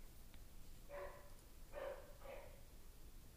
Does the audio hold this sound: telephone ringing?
no